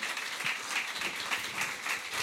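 A crowd applauds steadily, a dense wash of many hands clapping at an even level for a couple of seconds, with no one speaking over it.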